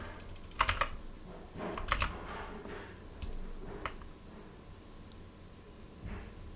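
Mechanical keys of a Razer BlackWidow Elite keyboard with green switches clack sharply in irregular bursts during computer gaming, a quick cluster of presses followed by scattered single clicks, over a low background hum, with no one talking.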